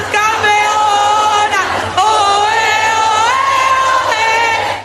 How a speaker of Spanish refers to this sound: aquí están las campeonas del mundo que nos encanta escuchar como gritaron.